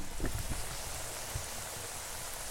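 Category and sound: food or drink, food sizzling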